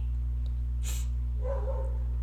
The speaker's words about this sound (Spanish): Y para esto, Ay, no, perdonen los perros de mis vecinos, pero pues es, la naturaleza, ¿no? ¿Cómo le decimos que no ladre?